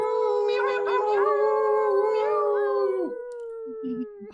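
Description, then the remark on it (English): Several people imitate wolf howls together through their microphones during a live broadcast, a loud, sustained wavering chorus of overlapping voices lasting about three seconds before dropping off, leaving a quieter, thinner howl trailing at the end. “and we'll make some uh, some animal wooing noises to be able to send some love to the people tuning into this so go ahead add a little wolf howl in there gently unmute your microphone when you're ready, make some noise, send some love.”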